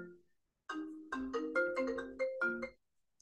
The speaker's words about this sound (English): I fucking, honestly, every time I record, sorry, I'm still swearing, but every time I bloody record, someone phones me.